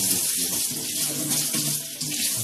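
running tap water

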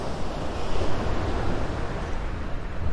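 ocean waves

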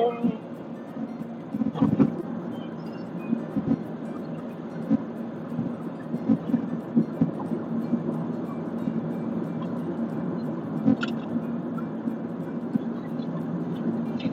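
car interior driving noise

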